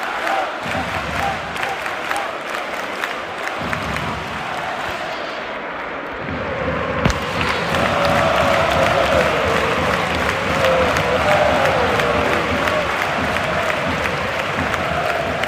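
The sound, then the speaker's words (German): A football stadium crowd at Espanyol's relegation match against Getafe roars steadily before kickoff, a dense wash of cheering and clapping that swells louder halfway through and holds at a sustained, excited peak with scattered shouts. “Und dementsprechend ist die Stimmung auch richtig, richtig gut.”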